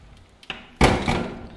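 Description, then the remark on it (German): A door swings shut: a faint click of the handle, then a solid, full-bodied thud that lingers briefly before fading. No one speaks. “Jetzt mache ich hier noch schnell die Tür zu.”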